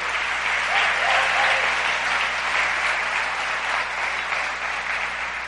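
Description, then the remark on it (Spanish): Loud, sustained applause from an audience, given to God, a dense wash of clapping that holds steady for several seconds with no pauses, fading only slightly toward the end. “démosle ese aplauso fuerte al que vive.”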